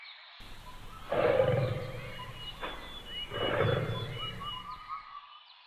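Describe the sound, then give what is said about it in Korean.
A tiger roars twice, deep rumbling growls about two seconds apart, loud, with faint forest birdsong chirping in the background and no talking. “홍이는 지금껏 호랑이를 진짜로 본 적이 한 번도 없었어.”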